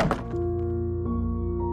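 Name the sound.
door closing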